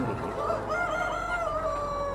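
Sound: hens clucking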